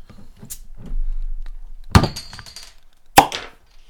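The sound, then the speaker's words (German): A beer bottle is opened with a sharp pop, followed by a brief fizzing hiss, after some glassy clinks and handling noise against a low background rumble. “Oh, wunderschöner Plopp.”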